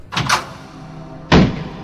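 A house door opens with a quick rattle of the latch and handle, followed about a second later by a heavy wooden thud as it swings against the frame, close by.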